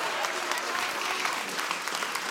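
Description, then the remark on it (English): A church audience applauds itself steadily after doing the hokey pokey, dense clapping at a fairly even level for a couple of seconds, with no clear voices standing out. “Give yourselves a round of applause.”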